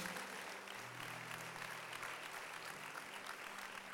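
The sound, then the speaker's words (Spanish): A church audience applauds for Jesus, clapping steadily throughout, a dense, even wash of many hands with no pauses or swells, and a faint low hum sitting underneath. “Dale un aplauso a nuestro Jesús.”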